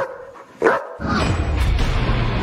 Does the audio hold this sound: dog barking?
yes